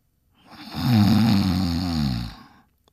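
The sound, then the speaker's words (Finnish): A man asleep sitting on a bench, leaning back against a wall, gives a single loud, drawn-out snore that rumbles deep and raspy for about two seconds, swelling and fading, with no talking around it. “Kuului silloin mahtava jyrin. Lukkari kiivastui. Kuka piru siellä kuorsaa?”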